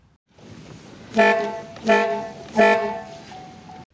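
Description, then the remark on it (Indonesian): A roving satay street vendor's trumpet horn toots three times in a steady rhythm, each blast bright and brassy with a brief fade, over a constant hum of background noise. “di daerah rumah gue ini ada tukang sate yang kelilingnya dia nggak bisa gitu teriak-teriak teh gitu jadi diakalin tuh pakai trompet dia trompet ditiup tot tot nah kalau di sore-sore menjelang maghrib ada suara gitu tot tot nah itu tukang sate tuh”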